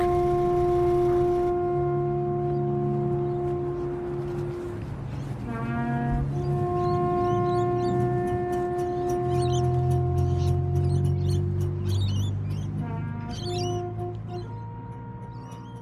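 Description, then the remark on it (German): A bagpipe drones on steady, reedy notes while a small trumpet plays short bursts of quick notes, the two sounding out of tune together for the whole stretch with no talking. “Ihr habt im Hintergrund eine kleine Trompete und einen Dudelsack ge gehört.”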